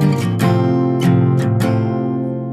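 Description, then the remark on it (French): A guitar chord, a D shape with a G bass, strummed several times in an uneven rhythm, ringing out fairly loud with no voices. “C'est un ré majeur avec une basse alors c'est pas un ré majeur parce que je suis monté, mais c'est position de ré avec une basse sol.”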